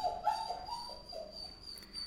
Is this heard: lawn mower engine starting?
no